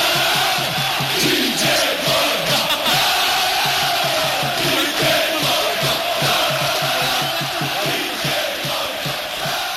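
A large crowd of football supporters chants in unison, a loud, sustained rhythmic roar with regular pulsing beats of voices repeating a refrain throughout.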